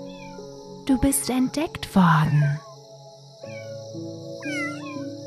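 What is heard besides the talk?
kitten meowing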